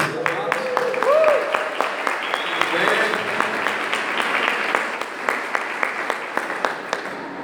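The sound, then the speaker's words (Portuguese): An audience applauds steadily, a dense wash of many hands clapping, with sharper individual claps punctuating the later seconds and faint voices murmuring underneath. “Vamos aplaudir, queridos.”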